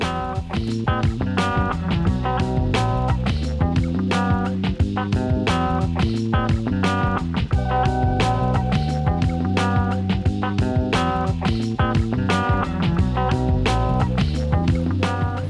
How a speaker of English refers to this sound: Staying in the funk, but chilling out a little bit more. Staying in the United States.